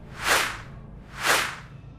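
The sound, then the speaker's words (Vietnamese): Two swift crossbow arrows, shot by marksmen, whoosh through the air at night about a second apart, each a sharp, airy swish that swells and fades quickly, fairly loud, with no voices. “Những mũi tên từ mấy cây nỏ Của những tay thiện xạ bay ra Xé gió lao đi vuông vuốt trong màn đêm có âm thanh xào xạc của mũi tên bay lạc vô lùm cây Có âm thanh cắm phập vô gốc cây nào đó”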